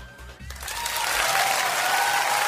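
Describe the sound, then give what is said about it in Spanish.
Studio audience applause on a radio show, welcoming guest Pablo Ruiz, swells in after a brief moment and holds steady as a dense, loud wash of clapping to the end, with a faint tonal hum underneath. “Se llegó tarde el aplauso.”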